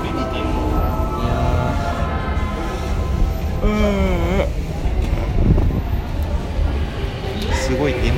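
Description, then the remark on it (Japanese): A commuter train on the Tokyo Line rumbles along elevated tracks overhead, a steady heavy roar that fills the scene, with a brief rising and falling electric whine midway and muffled voices underneath. “でも上の東京ラインが走ってますね、うん、その上の東京ラインが走ってる中ちょっと収録してるわけではありますが”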